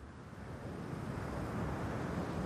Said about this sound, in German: Unter ihm walzen die Wellen gemächlich auf und ab.